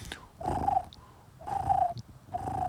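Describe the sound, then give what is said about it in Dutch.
A European turtle dove coos in three soft, purring phrases about a second apart, each a low rolling trill. Faint high chirps sound in the gaps, with no voices. “Namelijk het geluid van koerende zomertortels.”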